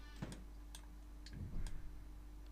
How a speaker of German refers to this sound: Das ist eine Uhr. Die Uhr tickt.